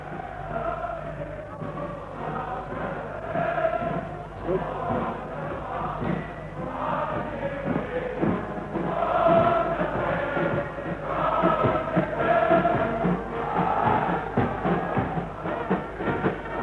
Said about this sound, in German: Wir stehen am offenen Fenster. Sie können jetzt besonders gut hören, wie die Menge jubelt. Wir lassen Ihnen noch einen Augenblick die Musik von draußen ins Fenster hereinschallen.